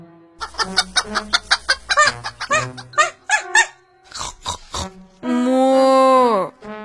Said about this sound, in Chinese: 当母鸡们看到这样的场景，它们也叫着飞出鸡舍，加入到游戏当中。奶牛太太当然也没有落下，她学着母鸡的声音，咯咯地叫着。